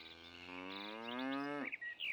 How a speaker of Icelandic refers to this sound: Þá heyrir hann að kýrin baular langt í burtu.